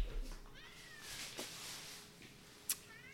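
cats meowing and yowling

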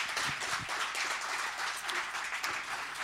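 applause

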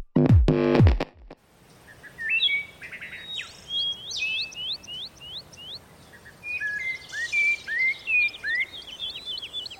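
birdsong

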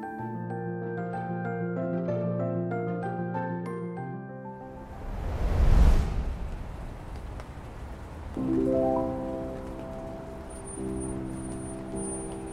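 rain falling

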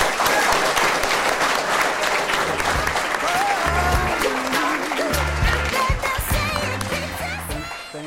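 audience applause

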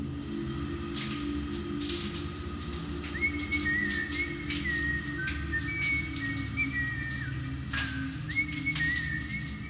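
person whistling a tune

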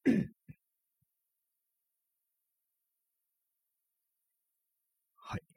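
throat clearing

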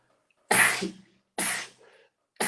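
sneeze

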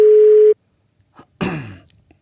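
telephone call ringing tone

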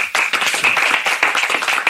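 applause

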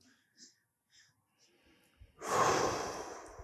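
heavy breathing

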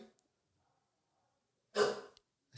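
dog snoring loudly

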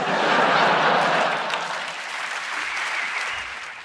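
audience applause

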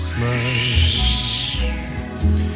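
wind blowing

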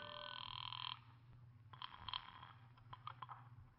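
telephone ringing

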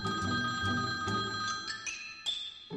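telephone ringing

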